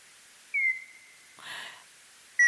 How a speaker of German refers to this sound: Der große Abendsegler.